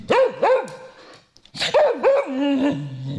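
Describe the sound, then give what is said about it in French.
A dog lets out a string of loud, pitch-bending barks and yowls in two bursts separated by a brief pause, the second burst longer and trailing into a lower drawn-out whine. “Ah, t'es là Ça va Pompidou”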